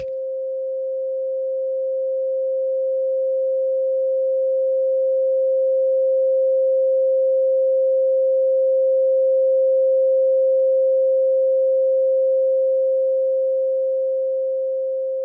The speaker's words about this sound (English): For our listeners, we'll throw in a little bit of 528 hertz for you right here. So this is this is what it sounds like.